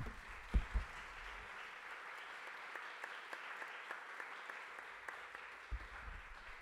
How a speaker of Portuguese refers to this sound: Podemos aplaudir.